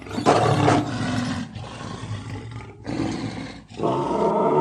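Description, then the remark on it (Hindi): A lion in a jungle lets out a series of loud, deep roars, each one rumbling and raspy, with brief pauses between bursts as the roaring swells, fades, then surges again. “वह उछलकर सबके सामने आया और गूंजती हुई दहाड़ के साथ बोला ये क्या पागलपन है”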